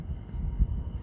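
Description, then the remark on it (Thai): Frogs call in a steady, high-pitched pulsing chorus by a stream at about 11 pm on a clear night with stars visible, one frog about an arm's length away, with a low rushing murmur of water beneath. The calls continue without a break, and nobody speaks. “นี่นี่ผมกำลังนั่งอยู่ริมลำธารนะครับตอนนี้เป็นเวลาประมาณห้าทุ่มแล้ว ก็ได้ยินเสียงกบร้องกันค่อนข้างรงงมเลยตรงริมลำธารก็เป็นความรู้สึกแปลกใหม่ดีคือเราไม่เคยเห็นไม่เคยเห็นเลยนะคือตัวกบแบบเนี้ยไม่เคยเห็น”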